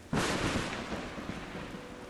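A sudden crack of thunder during a lightning storm bursts in and rolls into a long, loud rumble that slowly fades, with a steady hiss of storm noise underneath and no voices.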